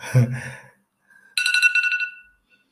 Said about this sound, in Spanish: Eso ha sido la alarma de, mi, de buscar a mis niñas al colegio.